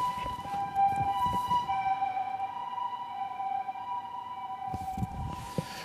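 vehicle, emergency vehicle siren outside

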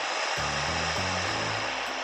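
household object, electric kettle boiling water

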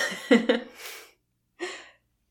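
animal, cat snoring

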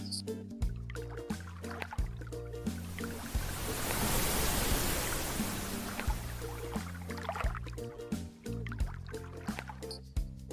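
nature, ocean waves breaking

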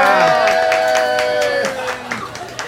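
crowd, applause and cheering

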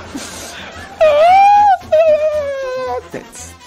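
human body sound, crying

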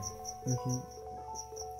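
insect, cricket chirping

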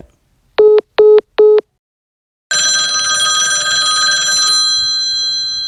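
signal or alarm, telephone ringing tone

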